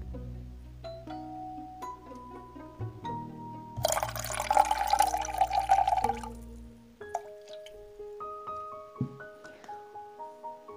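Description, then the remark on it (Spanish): Water is poured steadily into a blender jar holding vegetables for a couple of seconds, a splashy rush over soft background music with no one speaking. “Cuando ya le hayamos añadido el agua, vamos a poner la licuadora o la trituradora a funcionar.”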